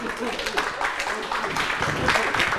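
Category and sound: crowd, audience clapping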